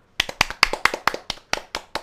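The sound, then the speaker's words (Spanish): A short burst of brisk, steady hand clapping, about nine sharp claps in quick even rhythm, with no voices, given as applause for Loyola. “Un aplauso para Loyola.”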